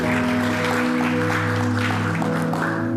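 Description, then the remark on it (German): An audience applauds steadily, a dense wash of clapping over sustained low musical tones, with no talking on top. “Hey, lass mal einen Applaus geben für die Menschen, die sich gerade gemeldet haben, so mutig waren.”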